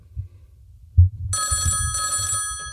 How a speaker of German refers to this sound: Oh, das Telefon klingelt. Perfekt.